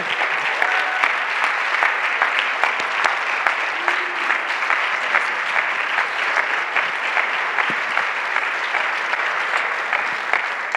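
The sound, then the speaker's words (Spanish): Sustained applause from an audience welcoming a guest, a dense steady patter of many hands clapping at a fairly even loudness for about eleven seconds, with no talking over it. “Así es que vamos a darle un súper aplauso, vamos a recibirlo con honor y con honra, ¿sí?”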